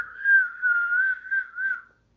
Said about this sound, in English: long whistle for that one. Indeed, it was.